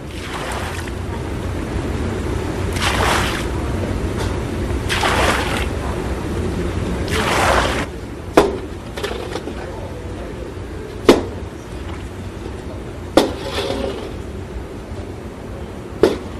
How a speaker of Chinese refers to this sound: 听到了吗？这就是现场古老的制盐声。在我的眼前，有八口大锅正冒着热气，里面就煮着白花花的卤水。